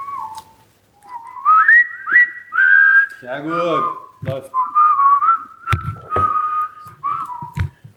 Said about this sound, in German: Können wir nochmal alle das Lied pfeifen?